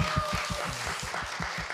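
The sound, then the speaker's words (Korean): An audience applauds in a dense, steady wash of clapping that lasts the whole moment, with a regular low thumping pulse running underneath and no one speaking. “네, 박수 쳐주세요.”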